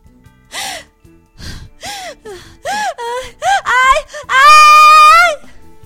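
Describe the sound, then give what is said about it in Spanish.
A woman who has woken up frightened in the night gasps and cries out in a rapid series of short, panicked breaths, then lets out a long, loud, shrill scream of fright. “Ese grito hizo que Juan inmediatamente entrara a la habitación y le dijo, Calma mujer, soy yo.”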